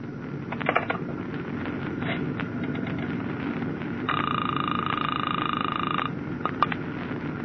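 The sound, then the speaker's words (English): A telephone on a ship being dialed to the radio communications office: scattered sharp clicks, then a steady, high electronic tone holding for about two seconds before more clicks, all over a low rumbling background hum. “Well, just as a test, pick up the phone and dial the radio communications office.”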